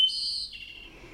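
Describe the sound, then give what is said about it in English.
A bird sings a bright, high whistled note held for about half a second, then trails off into a softer, fading tone, heard alone against quiet surroundings. “They are full of joy, these little birds, and their singing is so beautiful, it's almost magical.”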